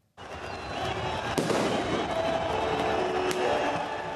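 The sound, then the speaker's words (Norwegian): A large outdoor crowd of demonstrators in Tahrir Square, Cairo, roars and cheers in celebration in the evening, a continuous dense din punctuated by two sharp firecracker bangs that cut through the noise. “Meldingene om at den forhatte ekspresidenten er døende, vakte jubel på Tariq-plassen i Kairo i går kveld.”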